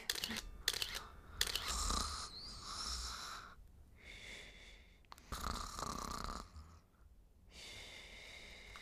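A woman snores in her sleep, each loud, rasping inhale followed by a quieter breath out, repeating in a slow, steady rhythm with brief pauses between snores.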